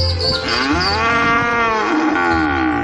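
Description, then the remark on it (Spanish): A cow moos loudly, one long drawn-out bellow that rises and falls in pitch and fills nearly three seconds, with low background rumble underneath. “Se lo pregunto entonces a ella. De usted. ¿Usted vaca hablaría conmigo un minuto?”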